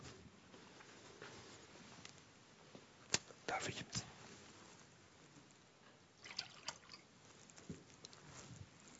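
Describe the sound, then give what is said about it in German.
Quiet sounds of water being poured and sipped by a speaker who is a little ill, with a few sharp clicks and small gulps scattered through a hushed background, no talking. “ich bin auch ein bisschen krank, ich brauche ein bisschen Wasser, Entschuldigung.”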